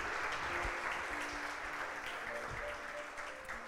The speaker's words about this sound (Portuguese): Se você crê, aplauda ao Senhor bem forte aí, em nome de Jesus.